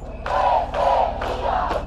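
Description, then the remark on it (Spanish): Dozens of protesters chant "no es sequía, es saqueo" in unison on a Monday night in front of the presidential residence in Uruguay's capital, loud rhythmic shouted phrases repeating about every half second, with a steady low hum running underneath. “Al grito de no es sequía, es saqueo, decenas de personas se manifestaron en la noche del lunes frente a la residencia presidencial de la capital uruguaya.”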